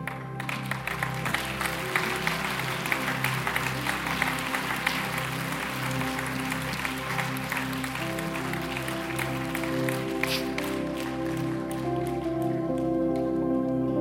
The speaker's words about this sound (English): This is how much God loves you. Come on, let's clap.